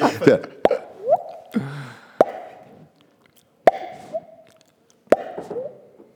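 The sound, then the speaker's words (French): A voice mimics a small drop of water dripping in a cave with a series of sharp mouth plops, roughly one every second or so, each followed by a short ringing tail, with soft voiced sounds and breaths in between. “on est dans une, dans une grotte là, hein. la petite goutte d'eau dans la grotte.”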